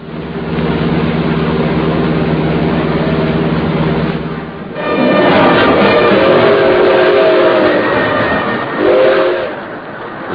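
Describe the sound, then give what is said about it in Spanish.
A freight train rumbles steadily along the rails, then loud, drawn-out horn blasts ring out over the clattering of the cars, continuous with no voices. “Los trenes de carga habían sido el medio mejor para viajar de Porfirio Cadena.”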